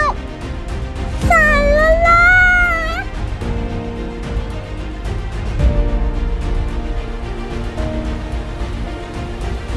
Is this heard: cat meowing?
yes